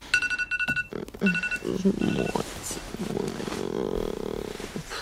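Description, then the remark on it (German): An alarm clock rings with rapid, high-pitched electronic beeps for about a second and a half, then stops, in the film Do Not Expect Too Much from the End of the World. A low, drawn-out groaning voice follows as a film production assistant drags herself out of bed. “Der Wecker geht und die Filmproduktionsassistentin Angela schält sich stöhnend aus dem Bett.”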